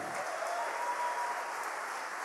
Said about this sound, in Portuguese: você pode aplaudir Jesus, amém?